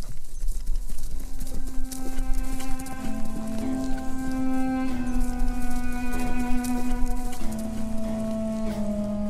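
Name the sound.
horse galloping away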